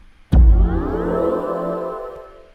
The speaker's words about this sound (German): Und das ist ein Sound, was voll mit Elementen ist. Also der Anschaltsound für ein E-Auto von BMW und was dafür ein Aufwand betrieben wird.